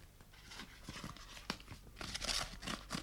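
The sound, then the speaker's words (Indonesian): Paper rustles and tears in quick, irregular bursts as a woman opens letters, with crisp crinkling and a sharper rip near the end, fairly quiet and with no talking. “is opening letters”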